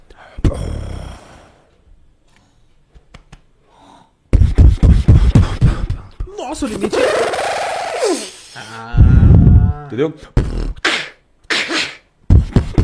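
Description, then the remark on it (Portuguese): Loud beatboxing: punchy vocal kick and snare bursts, sharp breathy inhales as the beatboxer pulls in air, and a wavering vocal sweep in the middle, after a short spoken exchange and a quiet pause. “tem um limite pra você fazer o beatbox?”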